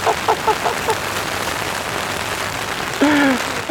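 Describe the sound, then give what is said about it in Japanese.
Heavy rain pours down outdoors at a cyclocross bicycle race, beside the finish line, in a dense, steady hiss that fills the whole clip, with brief snatches of voices near the start and a voice cutting in toward the end. “雨がたくさん降っております”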